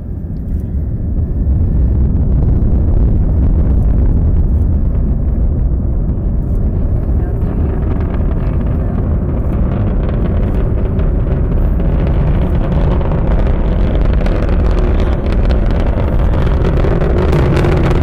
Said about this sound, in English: pitched, kind of echoey, screeching noise. And what that is, is the rumble from the Atlas V, and, and the sound is, is echoing and vibrating the panels on the vehicle assembly building, which is probably maybe half a mile away from us at that point.